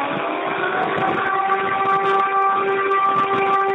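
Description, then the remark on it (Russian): A steady local warning siren wails continuously, its sustained tones holding fairly level and loud throughout, with faint background noise and no speech. “Вот э, такие вот голоса раздаются по местной сирене, то есть э, ой, сирена.”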